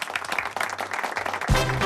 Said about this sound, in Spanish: Un aplauso.